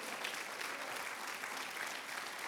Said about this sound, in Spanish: Vamos, apláudele fuerte a Él.